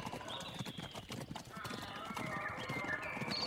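A giraffe breaks into a trot, its hooves clip-clopping in a quick, steady rhythm, a busy stream of hard taps, with a high whinny-like tone threading through the clatter.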